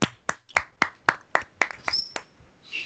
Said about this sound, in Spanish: Un aplauso, señores.